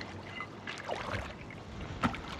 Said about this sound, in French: Euh, à quoi tu penses quand t'entends l'eau À la piscine.